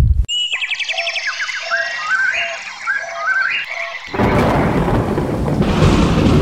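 Warbling, chirping tones give way to a sudden loud thunder clap that bursts in near the end and rolls on as a dense, roaring rumble. No one speaks.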